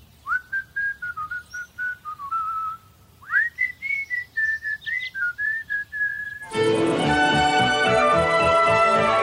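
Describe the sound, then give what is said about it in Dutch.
A clear whistled tune, an advertising jingle for the Bona brand, plays as a bright, bouncy melody of short notes, then abruptly gives way to a dense burst of music for the final few seconds. “Ik zal even iets fluiten voor wie geboren is in de vorige eeuw.”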